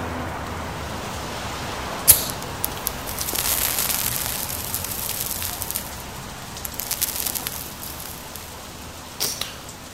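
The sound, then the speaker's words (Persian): A sharp scratch of a match being struck to light a cigarette on a sidewalk, followed by a bright hissing flare that burns for a few seconds, then fades; another brief scrape comes near the end, with no talking. “یه لحظه وایسا یکی داره تو پیاده رو رد میشه خدا کنه کبریت داشته باشه داداش آتیش داری؟ سیگار از خودم غمت نباشه”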